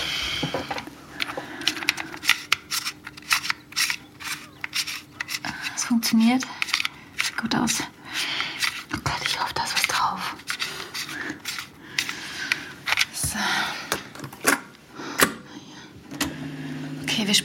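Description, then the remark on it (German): Loose cassette tape being wound back with a pencil: a steady run of small plastic clicks and rattling scrapes, with brief muffled handling noises and faint murmuring voices. “Oh no, da hängt das Band raus. Hast du vielleicht irgendeinen Bleistift?”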